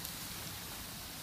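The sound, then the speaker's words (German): A small brook babbles steadily in the background, a soft, continuous rush of flowing water with no voices present. “Jetzt kommen wir langsam hier so an einen kleinen Bachlauf man hört es wahrscheinlich im Hintergrund.”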